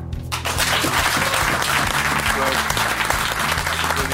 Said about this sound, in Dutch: Applaus.